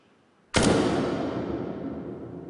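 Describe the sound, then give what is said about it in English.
A single sharp gunshot, originally less than half a second long, cracks out, then rings into a long, smooth reverberant tail that slowly fades. Reverb has been added to make it sound as if it were recorded inside a chapel or a church. “By adding reverb, we can make it sound like it was recorded inside a bathroom or like it was recorded inside a chapel or a church”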